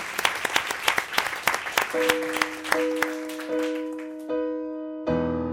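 Audience applause for the pianist at a live performance, a burst of sharp, steady clapping that fades after about two seconds as sustained piano notes begin to ring out and take over.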